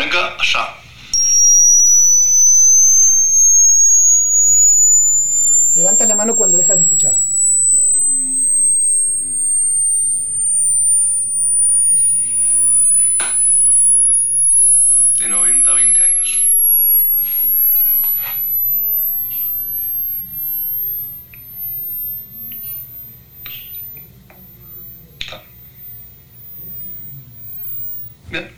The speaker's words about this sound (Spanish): Eh, cuando dejes de escuchar me dices, ¿ok? Hoy te vas a enterar la edad real de tus oídos, así que cuando dejes de escuchar este sonido, esa es la edad real que tenés. Levanta la mano, ¿ok?